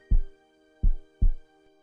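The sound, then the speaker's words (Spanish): Deep, muffled heartbeat thumps in an Om Radio jingle, three in all, the last two falling close together like a lub-dub, over a steady soft tonal drone with no voices. “¿Escuchas a tu corazón?”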